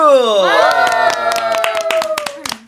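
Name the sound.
studio audience clapping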